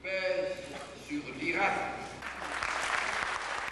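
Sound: applause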